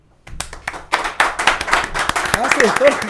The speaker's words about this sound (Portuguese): Vamos aplaudir